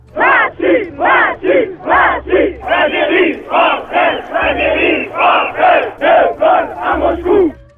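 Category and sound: crowd, crowd shouting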